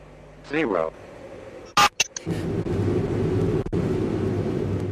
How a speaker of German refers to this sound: So klingt es, wenn Energie erzeugt wird, die zehnmal heißer ist als der Kern der Sonne.